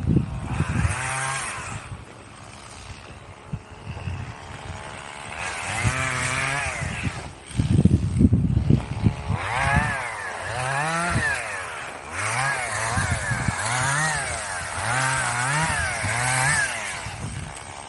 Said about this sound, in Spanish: Toca el himno de España con la motosierra, sí, yo creo que sí.